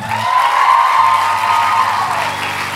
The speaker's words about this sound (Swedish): Så, först upp så kan ni bara ge en varm applåd